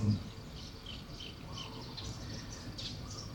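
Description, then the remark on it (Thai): Faint birds chirp in scattered short bursts at a Dhamma garden, over a steady low rumble of machinery and outdoor background noise. “เราอยู่ที่สวนธรรมได้ยินเสียงเครื่องจักรได้ยินเสียงนกเสียงผู้คน”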